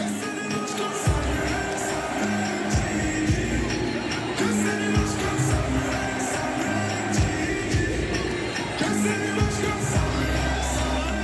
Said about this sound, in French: Ouais, ça crie comme ça d'un stade. Euh, ah, écoute, c'est la folie.